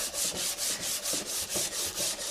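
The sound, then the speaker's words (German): Steady hand sanding with fine sandpaper to smooth a surface once more: about eight even back-and-forth strokes, each a soft, airy hiss with a regular rhythm, no voices. “Dann kann man mal schauen, ist das eine glatte Oberfläche und dann nimmt man ein feineres Schleifpapier und schleift man halt die Oberfläche noch einmal nach.”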